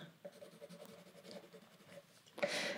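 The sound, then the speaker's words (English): A pencil scratches steadily across paper in close, continuous strokes as someone sketches lines, ending with a brief louder, rougher burst of scraping; no voices. “This isn't coloring like a coloring book, it's sketching, but still doing those lines rounded on my arms, straight up and down, straight on the fronts.”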